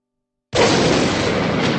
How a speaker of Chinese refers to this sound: 突然的爆炸声，让我人顿时一阵空白，失去了所有知觉。